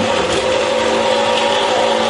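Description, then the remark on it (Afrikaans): A slow-running saw with very fine teeth cuts out the shape of a knife blank along the marked lines, a loud, continuous grinding whine with a slight ringing tone, holding even for the whole moment with no voices. “Dus nou so jy saag maar al op die lyn wat jy gemerk het, die vorm van die mes saag jy maar uit.”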